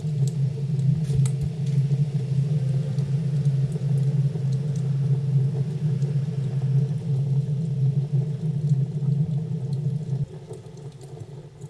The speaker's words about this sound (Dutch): Je luisterde naar een eh, soundscape eh, gemaakt aan de hand van geluiden die zijn opgenomen in de avond in de pijp.